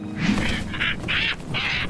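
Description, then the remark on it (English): A stork, caught in a net and held at arm's length, cries out in panic with four harsh, honking squawks in quick succession, loud, with no one speaking. “It cried out in panic as the king held it at arm's length.”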